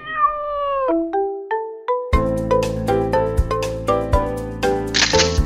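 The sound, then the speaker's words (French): High-pitched kitten meows, the first one wavering, then several short mews stepping up like a little tune before a loud rhythmic musical backing kicks in over them. No one speaks. “Et c'est le tweet des petits chats.”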